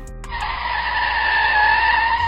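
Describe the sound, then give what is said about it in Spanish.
A car brakes hard in the street with a loud, sustained tire screech, a high whining squeal that holds steady for about two seconds, prominent with no talking. “En la calle se escuchó una frenada tremenda.”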